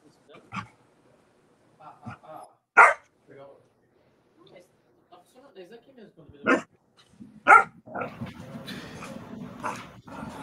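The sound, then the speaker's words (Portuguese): A dog named Simba, worked up, barks several times in sharp, loud bursts spaced a few seconds apart, with some softer yips in between and faint talking and background noise underneath. “Simba tá atacado aqui. Agora eu tô te ouvindo falar. Aê, tá me ouvindo agora. Ai, sim, cachorro.”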